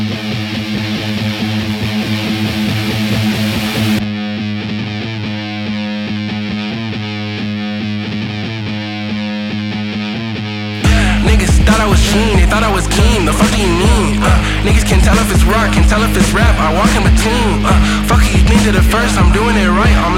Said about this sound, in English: Rap con guitarras acaban de sacar un nuevo EP